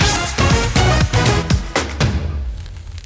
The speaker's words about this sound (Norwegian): Vi hører lyden av deilig kjøtt på grillen glinsende, og det pipler opp med kjøttsaft ut av det gyllenbrune kjøttet.